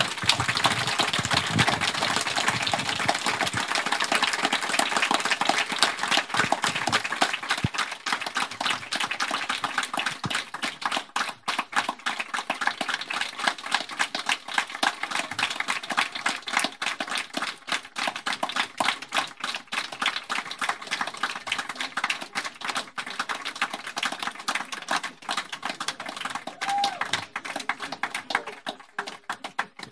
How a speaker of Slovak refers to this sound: Toto bol najdlhší potlesk za tých 5 rokov, odkedy toto robíme.